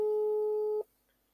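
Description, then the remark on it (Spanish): A single steady electronic telephone tone sounds clearly for just under a second as a call is placed to a guest, then cuts off abruptly into near silence, like the ringback heard while a call connects. “Vamos a llamarlo. Y espero que esté, porque si no, voy a tener que hablar solo.”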